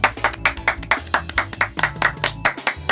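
Applause as a steady, rhythmic clapping, about four or five sharp claps per second, fairly loud, over a low humming tone underneath, with no talking.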